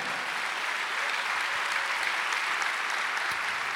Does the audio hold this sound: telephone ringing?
no